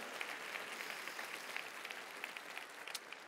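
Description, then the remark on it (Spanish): After a prayer, an audience gives a loud applause to the one who lives and reigns forever: a dense, steady wash of many hands clapping at an even level with scattered sharper claps standing out, no voices over it. “Y le das un aplauso fuerte al que vive y reina para siempre.”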